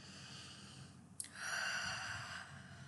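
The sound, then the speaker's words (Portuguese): A single slow, deep breath taken during a guided visualization exercise, a soft airy rush that swells after a brief click and then gradually fades, with no talking. “Respirem fundo e visualizem.”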